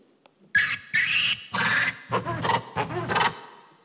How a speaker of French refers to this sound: L'une d'entre elles utilise des vocalisations de lémurien. Je vais vous faire écouter.